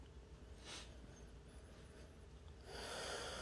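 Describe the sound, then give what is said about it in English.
Quiet sniffing of a glass of Old Granddad 114, a 114-proof bourbon: a brief airy sniff, then after a pause a longer, steady inhale through the nose that runs to the end. No talking. “Let's uh give her a sniff.”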